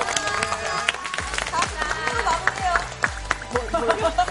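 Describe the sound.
Steady applause of thanks for a teacher after his lecture, from a studio audience: dense clapping carrying on for several seconds, with rhythmic low booming beats and some crowd voices underneath.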